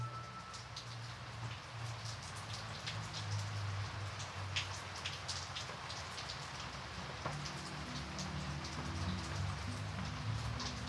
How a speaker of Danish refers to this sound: Regnen pisker os koldt i ansigtet, når vi cykler.